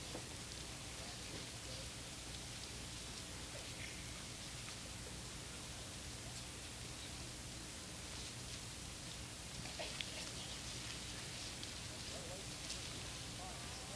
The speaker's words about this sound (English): Revelation is pretty easy to find because that's the last book in the Bible but it is nice to hear the rustling of the pages.